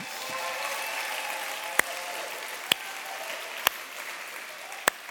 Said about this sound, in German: Und wir sind schon so kräftig am Klatschen hier. Lasst uns mal alle Standorte kräftig beklatschen und herzlich willkommen heißen.